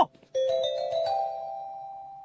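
doorbell ringing

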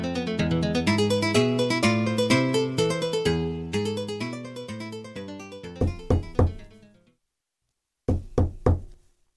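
knocking on a door

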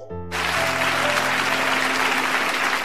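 audience applause

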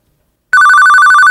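telephone ringing

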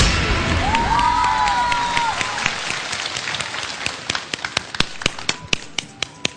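audience applause and cheering

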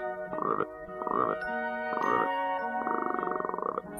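frogs croaking

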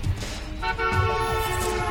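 car horn honk

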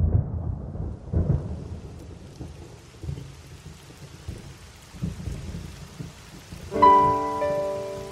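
heavy rain with thunder

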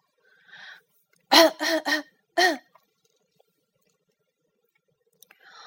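cough

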